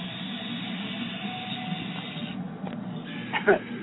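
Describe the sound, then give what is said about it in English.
A leopard gecko screaming: a raspy, buzzing hiss runs throughout at moderate volume, ending with a brief, sharper squeaky burst near the end. No one speaks. “and that's the funny sound effect, which is actually a leopard gecko uh, screaming.”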